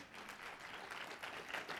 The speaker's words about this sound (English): Give the Lord a hand clap of praise.